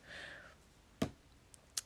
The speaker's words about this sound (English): I am shuffling the tried and true Tarot Mucha.